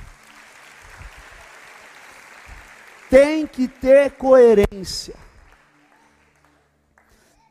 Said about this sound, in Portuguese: Aplaude o Senhor e se coloque de pé